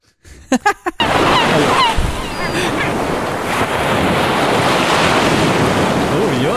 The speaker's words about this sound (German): oh, oh, ist das schön am Meer. Ist das schön am Meer.